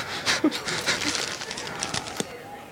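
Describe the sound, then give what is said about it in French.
A crow arrives with a quick flurry of flapping wings and a few short, rough calls, moderately loud against a faint background. “Un corbeau vient d'arriver depuis Hénin-Beaumont.”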